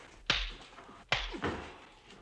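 Two sharp, loud slaps across the face in a film scene set in a greenhouse, about a second apart, each a crisp smack with a brief ringing tail. No one speaks.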